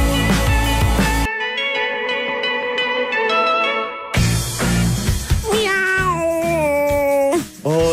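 A cat meows loudly, several drawn-out meows with rising and falling pitch, heard alongside a stretch of sustained, ringing bell-like tones.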